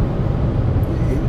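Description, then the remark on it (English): A steady, low rumbling drone of road and engine noise from inside a car driving through the Rocky Mountains, continuous and fairly loud, with a muffled, bass-heavy character throughout. “which is why you might hear a little bit of driving noise in the background”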